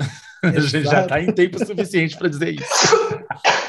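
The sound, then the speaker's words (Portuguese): Someone speaks and laughs, then two sharp, breathy sneezes, caused by dust, burst out in quick succession near the end, loud and noisy. “eu tive um acesso de espirro. Foi um atrás do outro, atrás do outro”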